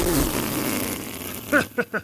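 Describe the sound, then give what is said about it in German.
A long, rough, raspy burp rumbles for about a second and a half, followed by a few short voiced sounds. “Oh, also der Rülps, ne?”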